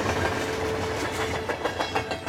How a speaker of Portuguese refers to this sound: Enfim, dezenas, trens passando, vagões cheios de gente,